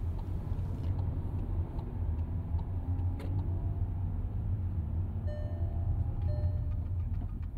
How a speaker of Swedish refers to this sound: Hon sätter sig i bilen och kör mot Skavsta. Det är fortfarande vinterväglag så hon kör försiktigt.